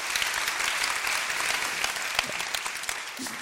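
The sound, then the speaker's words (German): An audience claps in praise of God during a sermon, a dense wash of many hands with no individual rhythm, sustained at an even, moderate loudness for a few seconds. “Komm, klatsch mal für.”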